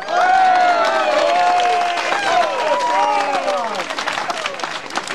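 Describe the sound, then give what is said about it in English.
A large crowd on the pitch applauds and cheers loudly for a team that has beaten Six Mile Bridge, with sustained clapping and a swell of overlapping shouting voices rising and falling throughout. “a massive scallop crowd on the pitch.”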